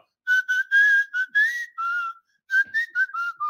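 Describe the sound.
Someone whistles the Flamengo club anthem, a bright, bouncy tune with a quick run of notes in two phrases separated by a short pause, with no talking.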